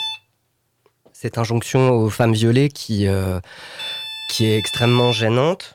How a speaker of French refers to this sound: Euh, bah, euh, tu, entends le son ou oui, il n'y a que moi Non, non, je l'entends aussi. Est-ce que vous l'entendez C'est le téléphone. Je crois qu'il ne faut pas répondre.